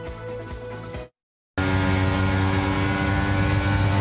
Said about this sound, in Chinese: 引擎发出巨大声浪，赛车在美国赌城拉斯维加斯的夜间街道狂奔。但仔细一看，这其实是电玩模拟画面。